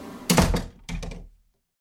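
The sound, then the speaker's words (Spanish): A door is yanked open by its knob with a rattling clatter, followed almost immediately by a heavy thud of someone falling into the room. Fairly loud, with no voices. “Corrí hacia atrás, alejándome del ruido, y busqué a tientas el pomo de la puerta. Giré y caí en la habitación 5.”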